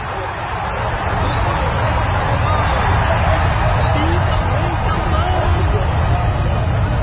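A large crowd roars and cheers for joy while following King Solomon and playing flutes, with a steady, dense wall of overlapping voices that stays loud and continuous throughout. No single voice stands out.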